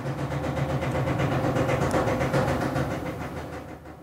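A washing machine churns through the end of its cycle, a loud steady mechanical drone with a low hum and faint rhythmic pulsing, easing off slightly at the very end.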